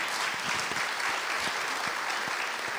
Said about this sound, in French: Vous êtes journaliste, grande reporter de guerre et prix Albert Londres 2022. On peut l'applaudir.